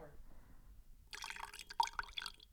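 The last of the coffee is poured into a cup: a short, splashy trickle lasting about a second and a half, with a few bright drips and gurgles, after a quiet start.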